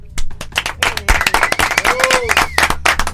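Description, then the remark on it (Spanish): A burst of applause for guests from a small group, dense overlapping claps with a few cheers and voices mixed in, steady throughout. “Esto Estos aplauso para ustedes.”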